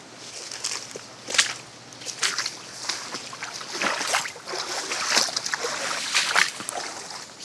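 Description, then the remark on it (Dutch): Footsteps crunch along outdoors at an unhurried walking pace by a reservoir, each step a brief, scraping burst over faint background noise, with no one talking. “Zullen we weer een stukje gaan lopen?”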